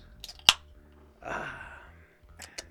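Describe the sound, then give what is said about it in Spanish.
A drink can cracks open with a sharp click, followed by a soft, sustained fizzing hiss of escaping gas and a few faint clicks afterward, fairly quiet with no talking. “¿Una Coca-Cola? Una, coca bien fría. Una lata de Ensure.”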